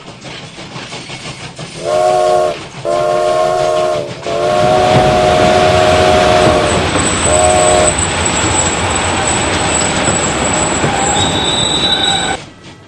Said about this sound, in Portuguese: Ele foi atingido por um comboio, senhor.